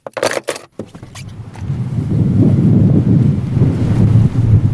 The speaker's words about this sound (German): Statt anderer Wanderer empfangen mich, als ich die Autotür öffne, Wind und Regen.